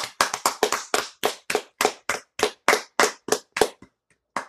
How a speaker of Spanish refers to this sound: Lo hemos conseguido. Lo hemos conseguido, chicos. ¡Aplausos!